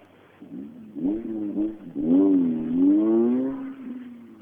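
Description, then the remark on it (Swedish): A rally car that looks like an ordinary passenger car pulls away quietly after finishing a stage, its smooth engine hum rising and settling in pitch as it accelerates, then easing off slightly toward the end. No one speaks. “Eh, tyst och fint. Det, när man tittar så här på det så tror man det är en helt, helt vanlig personbil som smyger iväg.”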